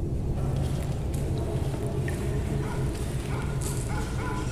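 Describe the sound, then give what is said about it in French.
Several dogs bark in short, scattered bursts over a steady low rumble, with an occasional whimper or yip mixed in and no one speaking. “Elle perçut les vibrations de pas bottés sur le sol, des cris, des aboiements”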